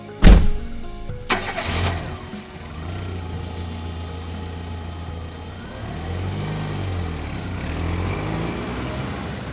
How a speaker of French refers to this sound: elle voit passer devant elle Alan et son père à toute vitesse dans la voiture de police.